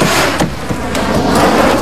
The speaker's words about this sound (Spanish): En un lateral salen chispas de una conexión se produce una deflagración. Hay fuego en la cabina. El fuego comienza a extenderse.